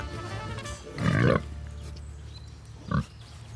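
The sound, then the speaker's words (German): A herd of Mangalitza pigs (woolly pigs, an old robust Hungarian breed) grunts on a pasture under tall ash and walnut trees at a farm in Axheim near Augsburg, Swabia, Bavaria: one longer throaty grunt followed a couple of seconds later by a short second grunt, over a low steady outdoor rumble. “Eine ganze Herde von Mangalitzer Schweinen, auch Wollschweine genannt, suhlt und wälzt sich auf der Weide”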